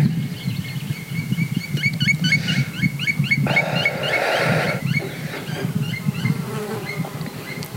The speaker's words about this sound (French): C'est beau, hein, c'est le printemps, il y a les abeilles et tout.